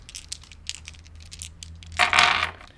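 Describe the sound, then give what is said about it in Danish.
A handful of green dice clatter and tumble across a tabletop in quick, uneven clicks, ending in a brief louder rattle as they settle, with no talking. “Jeg tror, det er de grønne terninger her, der slår rigtig dårligt.”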